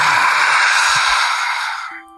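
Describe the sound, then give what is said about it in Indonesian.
A voice imitates a long, heavy breath: a loud, breathy exhale that hisses steadily for about two seconds before trailing off. No words are spoken. “Awalnya saya tidak terlalu pedulikan, tapi lama-kelamaan mulai itu ada suara nafas-nafas.”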